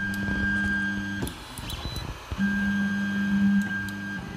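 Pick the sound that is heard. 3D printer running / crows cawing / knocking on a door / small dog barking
3D printer running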